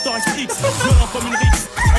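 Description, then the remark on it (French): A rooster crows in short, strained, loud bursts, while deep booming thuds land roughly every half second beneath it. No one speaks. “Bref, si on devait résumer ce coq à une vibe, ce serait ça.”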